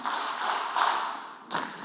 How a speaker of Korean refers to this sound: 이거, 이거 박수 세 번요, 시작.